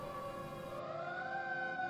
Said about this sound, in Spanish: Y solo me desperté con la sirena de los bomberos. ellos pasaron de largo.